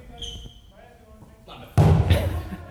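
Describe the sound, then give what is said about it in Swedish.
A single loud thump of a hard-thrown dodgeball after a quiet, faintly murmuring stretch, followed by a noisy, rumbling scuffle as someone's attempt to catch it is missed. “här kommer alltså ljudet av när någon fångar en dodgeball.”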